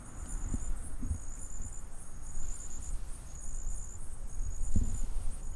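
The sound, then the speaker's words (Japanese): A steady chorus of insects chirping in a high, pulsing trill at night in a forest in front of a house, continuous throughout, with low rumbling background noise and a few soft thumps near the recorder; no one speaks. “えー、今夜中なんですけども僕は家の前の森に来ております皆さん聞こえますかこの虫たちの鳴き声がわかりますかそうハエバルバンバンって言ってるんですよもう一度聞いてください”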